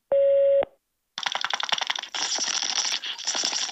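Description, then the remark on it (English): A voicemail prompt tone: one steady, mid-pitched electronic beep lasting about half a second, followed by a brief silence and then loud, continuous clattering, rustling noise. “After the tone, record just your first name.”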